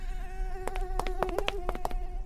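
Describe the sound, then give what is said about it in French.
An Aedes caspius mosquito's thin, high whine drones steadily in flight as it circles a sleeping human, its pitch wavering slightly, broken by several faint sharp clicks. No one speaks. “Aedes Caspius tourne autour de la cible de type mammifère en mode sieste.”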